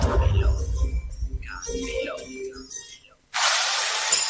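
Loud, steady power-tool noise like drilling bursts in abruptly near the end and runs without pause, following a stretch of mixed, clattering renovation sounds and voices. It is kitchen and bathroom renovation work by Fidel Cocinas.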